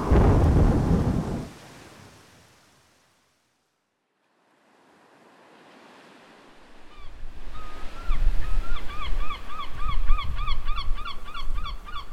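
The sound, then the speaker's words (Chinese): A heavy crack and rumble of thunder fades into a brief hush, then a stormy roar swells back in, with rapid repeated honking bird calls sounding over it. “领队也说：“ 大家小心，前面有暴风雨啊，靠近同伴呢。”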